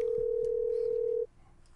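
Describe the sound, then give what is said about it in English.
A phone call's ringing tone heard in a headset sounds as one steady, clear electronic beep lasting just over a second, then cuts off abruptly, leaving faint background noise behind. “Ringing in the headset.”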